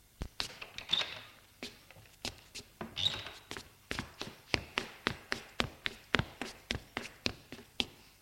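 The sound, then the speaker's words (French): Footsteps of three people coming down stairs: a string of sharp, hollow taps, uneven and sparse at first, then settling into a steady, quicker rhythm of about twenty clear steps with no talking. “Ils descendent tous les trois.”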